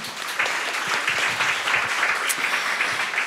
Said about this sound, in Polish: kłaniam się nisko, wielkie brawa.